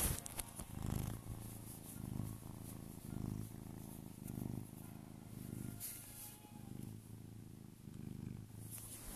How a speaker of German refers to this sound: Oh, du feine, süße Katze. Mm. Oh, schon, hört, hört ihr es?